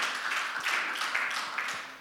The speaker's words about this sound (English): Somebody clap and thank God today that He is an on time God.